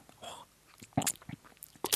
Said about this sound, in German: Schmatzen. schmatzen. Schmatzen ist nur einer der Einschlaftrigger, die ich heute mitgebracht habe.